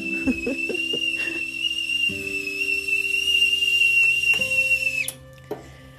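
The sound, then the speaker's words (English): A stovetop kettle whistles as water is heated for making coffee, a steady, piercing high tone for about five seconds, accompanied by low humming tones and a few clinks, then cuts off abruptly, leaving quiet. “the magic, can you hear it? That's the sound of heaven.”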